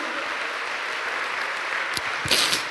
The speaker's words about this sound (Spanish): Dale un aplauso a ese Espíritu Santo, hermano.